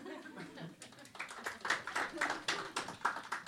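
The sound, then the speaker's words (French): A crowd answers a question put to the audience by breaking into scattered applause that quickly thickens into a steady patter of many hands clapping, with murmuring voices underneath at the start. “est-ce que les gens de l'avant, vous vous mettiez à l'avant dans le bus par applaudissement ah.”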